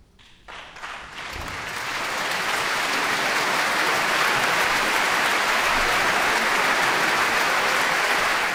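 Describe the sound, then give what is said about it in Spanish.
Loud, dense audience applause swells within the first couple of seconds, then holds as a steady roar of countless clapping hands with no voices on top, as a 2024 New Year concert of video game music begins. “el aplauso ensordecedor porque va a dar comienzo esta nueva edición concierto de Año Nuevo en el Pixel Sonoro Music Bagan.”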